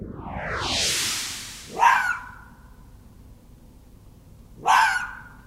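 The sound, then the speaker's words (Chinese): A fox calls twice, about three seconds apart: each cry is a sharp, harsh bark-like shriek with a falling pitch. A rising, airy whoosh comes before the first call. “哦，第二个动物的声音就是狐狸的叫声。”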